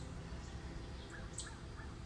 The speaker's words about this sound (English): And wow, can you hear this bird right next to me? I hear you, little one. I hear you. Good morning.